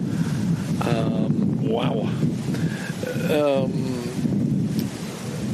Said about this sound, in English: Um, sorry about the wind